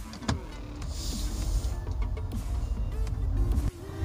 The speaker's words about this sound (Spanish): Y lo que voy a hacer es ver de qué forma suena el coche. Voy a tratar de hacer una conducción lo más eficiente posible, eso sí. Pongo el micrófono aquí puesto. Ya está encendido el coche.